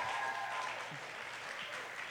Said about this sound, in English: So let's give her a big round of applause.